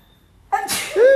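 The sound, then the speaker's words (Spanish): A single sudden sneeze bursts out after a brief quiet moment, a sharp breathy blast trailing into a voiced tail. “¡Salud!”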